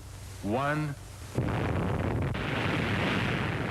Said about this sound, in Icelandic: Síðar í júli var annari sprengju komið fyrir neðansjávar í lóninu í miðju rifinu. Five, four, three, two,